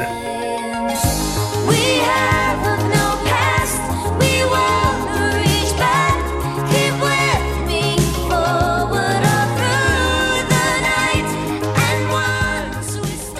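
A 1984 pop song recording plays at steady volume, with synth chords, a pulsing bass line and sung melody over a driving beat, continuous throughout with no talking over it.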